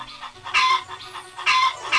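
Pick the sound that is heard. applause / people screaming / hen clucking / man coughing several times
hen clucking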